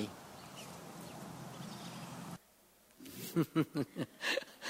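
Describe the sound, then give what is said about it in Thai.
A mother hen clucks in a quick series of about five short clucks, with faint high chick peeps mixed in, following a stretch of steady rustling background noise, as her chicks run to her feet and under her wings while a dog is present. “สังเกตไหมครับ ลูกไก่วิ่งเข้าไป ในใกล้เท้าของคุณแม่ แล้วก็วิ่งเข้าไปใต้ปีกและไอสุนัขนั้นไม่กล้าทำอะไร”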